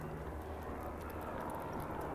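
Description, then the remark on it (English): A Bell 407 helicopter with a Rolls-Royce (formerly Allison) 250 engine drones overhead with a steady, low rumbling roar and a faint rhythmic chop, holding constant throughout with no voices. “And you may hear the sound of a helicopter right now.”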